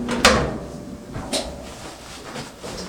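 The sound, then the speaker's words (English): A sharp click and clunk as a clothes dryer door is pulled open after 15 minutes of drying to take the load out, followed about a second later by a softer thump, with quiet background hum and no talking. “All right, so 15 minutes is up and let's take this out of the dryer.”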